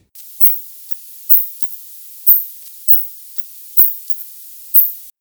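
A recording of bat echolocation calls: high-pitched, hissy chirps pulsing at a steady rhythm, about six louder bursts with fainter calls between, over a constant thin background hiss. No voices.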